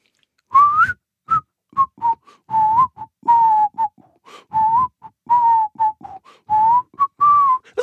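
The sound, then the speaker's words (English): A person whistles the bridge of a song, a melodic tune with a string of sustained and short notes in a flowing rhythm, slightly breathy, with no talking. “I can actually whistle the whole song, but um, I whistle gonna... the I whistle the bridge.”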